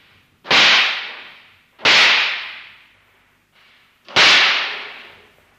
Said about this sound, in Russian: Услышав выстрелы, Синтия вскочила с кресла.